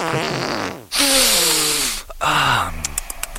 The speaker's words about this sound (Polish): Nawet ja mogę puścić różne takie, pra, prawda, no, prawie bąki, bo to nie są prawdziwe bąki, tylko na przykład.